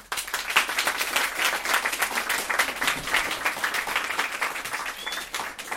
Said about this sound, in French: Merci beaucoup à toutes les deux. Vous pouvez les applaudir bien fort.